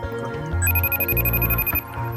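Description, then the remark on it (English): A phone ringtone trills loudly in a steady repeating electronic pattern as a call rings out waiting to be answered. It is clear, with a low hum underneath and no one speaking. “it's ringing.”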